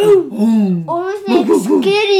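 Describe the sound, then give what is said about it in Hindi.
A child's voice imitates a dog barking, making loud, drawn-out yelping sounds with a wavering pitch in a few quick bursts. “चुरा के dog costume उसने फटाफट पहन ली और पहले उसने प्रैक्टिस की कि कुत्ते की आवाज निकले”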